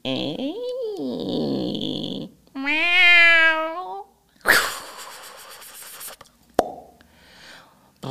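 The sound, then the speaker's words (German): A person imitates a cat for a sound-guessing game, with two drawn-out, wavering meows, followed by a short hissy burst of noise and a sharp click, fairly loud with no talking. “Okay, also wenn ich raten müsste, dann ist es eine Katze, die von ihrem Härchen vor die Tür gesetzt wurde und hm.”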